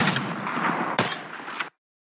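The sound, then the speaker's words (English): Shotgun fire at sporting clay targets: a loud, broad rushing blast with two sharp reports about half a second apart, then an abrupt cutoff into silence. No one speaks. “have a fun filled day of shooting sporting clays”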